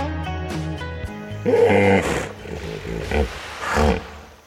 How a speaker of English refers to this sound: it's dinner time on the Itong Plains in Kenya, and a group of very large water loving mammals emerge from the river Mara to feed. Chris Watson was there to record the chatter that the Maasai people call the laughing hippo.